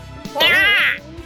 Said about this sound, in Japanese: そういえば確かにあの時カラスの鳴き声がしてたぞ黒熊がそばにいたカラスに目をやると